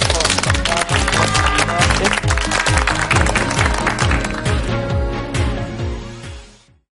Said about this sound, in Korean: 네, 자 그러면 다음 시간을 기약하면서 오늘 수고해주신 교수님께 큰 박수 보내드리겠습니다.